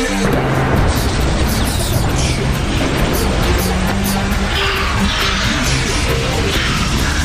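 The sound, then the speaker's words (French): A loud, sustained explosion effect, a dense rumbling roar with crackling debris that fills the whole stretch without letting up. No voices are heard. “Manque un d'explosion.”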